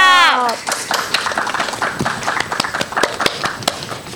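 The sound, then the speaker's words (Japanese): A brief spoken voice at the start gives way to an audience applauding the Bousai Chibikko Shouboudan, a children's disaster-prevention fire brigade, after their presentation; many hands clapping in a steady, sharp patter that stays fairly loud until the end. “ちびっこ衝動消防団の皆さんありがとうございました防災ちびっこ消防団の皆さんに改めて大きな拍手をお送りください”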